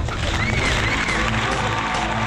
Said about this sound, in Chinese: 来，现在让我们掌声欢迎来自大连壮河的闪婚的帅哥上场。